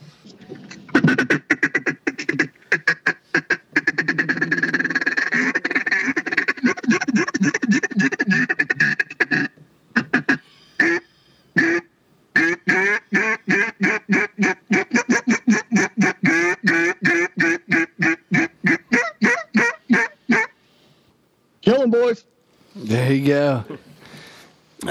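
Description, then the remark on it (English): A rapid series of notes blown on a swamp timber duck call: fast, rhythmic chattering quacks and Cajun squeals, then a bouncing run of hen quacks, ending with a few drawn-out rising squeals, loud with no talking. “You can do your Cajun squeals. You can do your bouncing hens and stuff let me uh, go ahead and break that out for you guys.”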